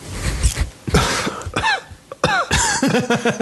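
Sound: cough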